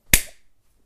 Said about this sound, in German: Wenn ich jetzt laut werde, dann ja, schlägt irgendwie gar nicht aus. nee, du musst schon irgendwie klatschen oder so. Jetzt pass auf.